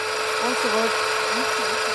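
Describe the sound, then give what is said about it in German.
Railway switch points shifting under motor power, moved remotely by mouse click from the operations centre in Pankow: a steady, loud mechanical whir and grinding hiss, with a low motor whine that swoops up and down several times. “Die Weiche bewegt sich ein Stück vor.”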